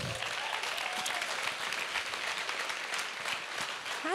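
Sustained applause from a large indoor audience, dense and steady clapping filling the room at a consistent loudness, with a faint murmur of voices beneath it.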